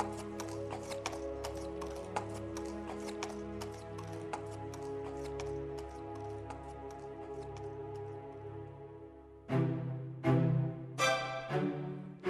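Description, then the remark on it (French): Steady clip-clopping of horse hooves on a hard surface as Bluebeard's carriage departs on a journey, with a low rumbling drone underneath, then a few louder whinny-like bursts near the end; no voices. “Après l'avoir embrassée, Barbe Bleue monta dans son carrosse et partit pour son voyage.”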